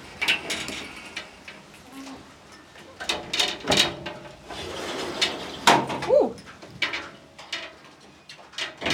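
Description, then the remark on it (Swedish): A window is pulled shut during a storm, to keep the rain out, with a series of clunks, scrapes and a sliding rattle, while steady outdoor ambience and occasional birdsong carry on in the background. “Tror du vi ska stänga fönstret?”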